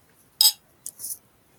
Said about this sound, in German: Ja. Ich beiß noch mal ins Omelette.